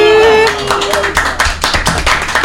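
A single person, a Radio Voilà host, applauds themself, clapping their hands about eight times in a quick, steady rhythm, fairly loud, after a brief sustained tone at the start.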